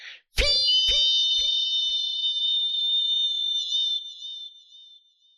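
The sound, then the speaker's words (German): A tea kettle whistles as the tea is ready, a shrill, steady high tone for several seconds, warbling slightly and fading toward the end, with a few sharp metallic taps near the start. “Und du hörst das Pfeifen eines Teekessels.”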